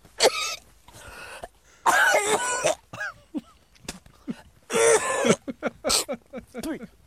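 A man coughs and gags repeatedly after a large fly landed in his throat while he was panting, harsh retching bursts broken by short gasping breaths and throat-clearing sounds, with no talking.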